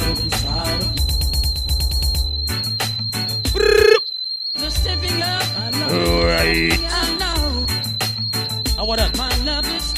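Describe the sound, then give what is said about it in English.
A shrill, sustained party power whistle holds one high pitch almost throughout, over loud thumping dance music with heavy bass, broken only by a brief dropout near the middle. “Power whistle, What a whistle in there.”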